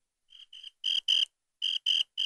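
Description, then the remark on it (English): Crickets chirping in short, evenly spaced bursts, the first couple softer and the rest louder, separated by brief silences with no voices present. “Where's Cricket Guy?”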